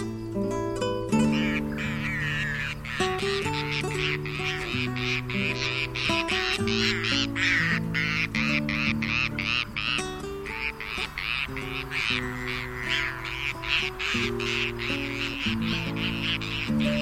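Bonaparte's gulls calling over and over, a dense chorus of harsh, raspy, grating cries in rapid overlapping bursts that continue steadily and loudly throughout, with no talking.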